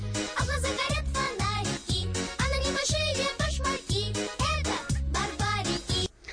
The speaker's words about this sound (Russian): Отличная песня.